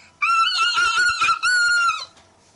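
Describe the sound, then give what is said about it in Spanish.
A Basque irrintzi, called irrinchi: one loud, piercing, high-pitched cry held for nearly two seconds, warbling in the middle, briefly dipping, then carrying on steady before cutting off, sung just as Spain scored against France. “Oye, has cantado el irrinchi cuando España le ha marcado a Francia.”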